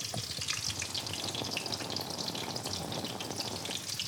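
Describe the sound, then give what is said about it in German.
Steady, dense sizzling and soft bubbling of rice cooking in a pot as a side dish for schnitzel, constant throughout, with fine crackles and no voices. “Der Reis, den ich mir dazu mache, hört sich so an.”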